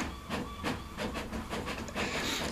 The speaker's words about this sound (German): Ja, okay, jetzt, jetzt druckt er.